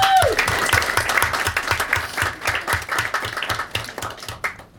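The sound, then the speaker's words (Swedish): Steady applause from a group of people, dense rapid clapping that stays loud and even throughout, with a short tone at the very start and no talking over it. “Ja, det är fan värt en applåd tycker jag.”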